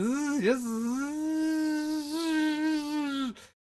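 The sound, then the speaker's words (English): A voice imitates a buzzing wasp with one long, steady, nasal drone, dipping briefly near the start and wavering slightly in pitch before cutting off after about three seconds. “Buzz, buzz, what's the buzz? With Brian Wasp”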